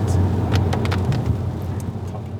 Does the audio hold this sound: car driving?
yes